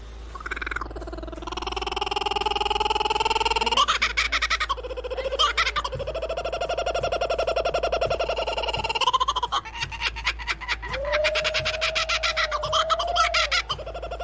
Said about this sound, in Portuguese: Vamos conhecer as cucaburras. O quê? Você nunca ouviu falar sobre essa ave? Mas provavelmente você já ouviu o seu canto.